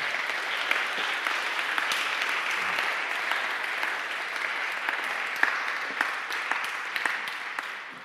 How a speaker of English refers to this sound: Let's give them a round of applause, shall we? Best news ever.